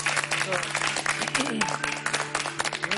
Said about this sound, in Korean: 뜨거운 감사의 박수를 좀 보내드리고 싶습니다. 감사합니다.